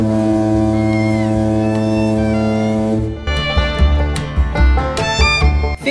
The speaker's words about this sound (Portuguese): 7 horas e 30 minutos, o vapor Peri se acha na reta do Bagre, quilômetro 153. O piloto dá o primeiro sinal no apito avisando que está chegando.